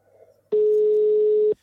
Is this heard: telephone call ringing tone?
yes